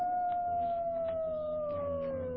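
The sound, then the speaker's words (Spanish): Dogs howling in a village in one long, unbroken wail that slowly slides downward in pitch, with a fainter higher tone running alongside it. No one speaks. “Oigo el aullido de los perros y dejo que aúllen.”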